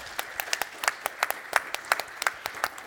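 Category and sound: crowd, audience applause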